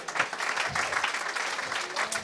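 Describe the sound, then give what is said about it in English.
A short burst of modest applause for the answer "Halloween 2": many hands clapping in a dense, steady patter that stays fairly soft and even throughout, with no clear voices over it. “I think there should have been bigger applause on that because uh, I think we all sort of forgot that that one was hiding.”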